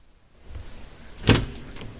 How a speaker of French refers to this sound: La porte s'ouvrit et me dirigea vers les escaliers